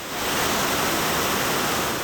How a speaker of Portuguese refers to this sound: A escadaria dessa estação de trem se transformou em cachoeira.